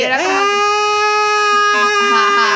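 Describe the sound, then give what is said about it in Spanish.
A single voice imitates the straining cry of a baby trying to poop: one long, sustained, tense wail with a rising start, held loudly for a couple of seconds with slight wavering near the end. “no, era un llanto.”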